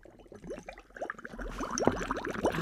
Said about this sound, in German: Blubber du mal weiter